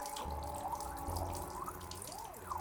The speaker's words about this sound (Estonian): korraga lasin kraanist vee jooksma. see kõditas mu käsi õrnalt oma rahutu voolamisega